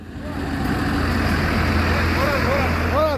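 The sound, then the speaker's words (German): Large white UN trucks with black UN lettering drive through Kidal at the end of October as the UN peacekeeping mission leaves its base; a heavy engine rumbles loudly and steadily throughout, a deep low drone with road noise, while faint voices call out briefly near the end. “Ende Oktober rollen große weiße Lkw mit dem schwarzen Schriftzug UN durch Kidal.”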